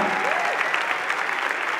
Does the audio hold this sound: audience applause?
yes